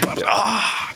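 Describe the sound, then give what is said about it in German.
A voice imitates a drawn-out groan, the noise people make when bending down, a single breathy vocal sound lasting about a second, fading at the end. “runterbücken und man macht ja immer dieses Geräusch, dieses so.”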